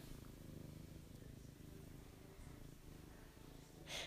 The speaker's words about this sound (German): Aber ich hoffe, man hört auch die Franzi. Das Schnurren.